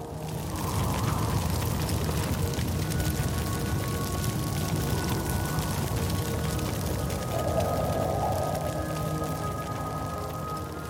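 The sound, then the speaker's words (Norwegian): A large wooden funeral pyre, a body laid on a heap of firewood and logs, set alight at Vang in Oppdal, roars steadily, a dense low rumble threaded with constant crackling and popping, holding at a loud, even level throughout with no voices. “Et lik ligger oppå en haug med ved og tømmerstokker i Oppdal. Så tennes det på.”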